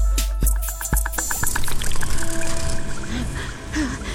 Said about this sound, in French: Le son bzzz que produit le vol de la Méganora a donné le mot anglais buzz, qui veut dire bourdonnement.